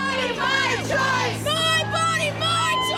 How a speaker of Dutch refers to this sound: Maar ook gejuich.